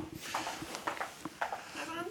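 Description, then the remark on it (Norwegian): Brisk, purposeful footsteps tap in an uneven rhythm just around the corner, drawing closer at moderate volume, with faint voices murmuring in the background. “Og det er noen svært målrettede skritt jeg hører nå rett rundt hjørnet.”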